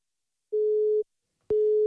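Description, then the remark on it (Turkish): A telephone busy signal: a steady low electronic tone sounding in two half-second beeps separated by a short silence, with a click at the start of the second beep. No voices. “Meşgulen verdi heyecanlı adam.”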